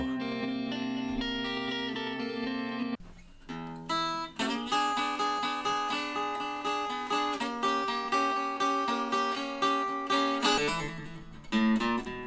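Electric blues guitar played by a blues legend, with a warm, distorted, reverb-soaked tone: a long sustained chord gives way to a steady run of picked notes and chords, played loud with no voices.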